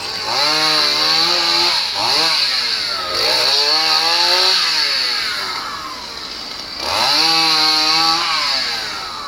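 A chainsaw engine roars, its pitch rising and falling repeatedly as the throttle is revved and eased, running continuously without any talking.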